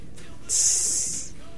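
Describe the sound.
A person imitates the hiss of a snake, one sustained, bright "ssss" lasting under a second, fairly loud, set against a quiet background.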